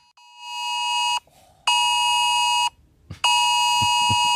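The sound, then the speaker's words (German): A loud electronic emergency alert tone from a warning-day alert blares in three long, steady blasts separated by brief pauses, harsh and buzzy, with faint rumbling noise in the gaps and no talking. “Und jetzt sind wir auch schon beim Punkt, gestern war der große Warentag und ähm, irgendwie hat es nicht funktioniert.”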